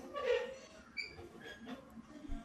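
A thin, high squeak repeats a few times at an uneven pace, a tricycle's small metal wheel or axle creaking as it moves on its own in a house in the early hours of the morning, fairly quiet against a faint background hum.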